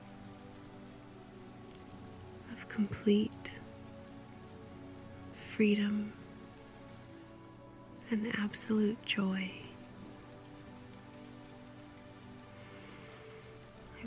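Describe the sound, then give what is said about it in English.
Steady rain patters softly and continuously on a surface throughout, while a quiet voice speaks a few brief phrases over it. “These drops that fall from the sky, these sparkling raindrops.”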